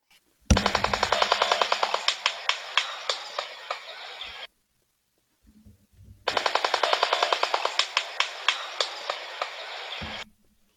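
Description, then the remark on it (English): Two loud bursts of rapid bill clattering by a big-billed bird, each a few seconds long, a fast rattling drumroll like a jackhammer that slows toward the end, separated by a short quiet pause. “So that was the bill clattering or the jackhammer noise in the beginning and then some clapping after that.”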